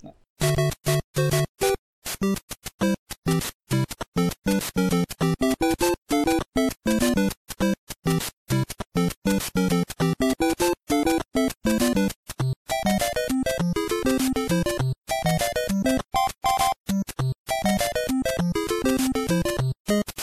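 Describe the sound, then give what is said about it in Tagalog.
Bouncy 8-bit video game overworld theme music plays on its own, with bright square-wave melody notes hopping in a quick, staccato rhythm over a steady bass line, loud. “Super Mario hmm. Brothers, yung team song niya, or overworld team. Pakinggan natin.”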